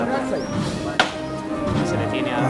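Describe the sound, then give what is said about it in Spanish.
A single sharp, loud knock of a hammer-style knocker striking a procession float, a crisp wooden thwack standing out over steady background voices and crowd murmur. “quedará a sonar el martillo, ahí está.”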